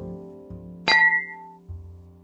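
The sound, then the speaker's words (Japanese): A single bright clink of glasses touching in a toast, ringing briefly before fading, over a faint steady background hum with no voices. “30代双子姉妹の晩酌ラジオ乾杯です”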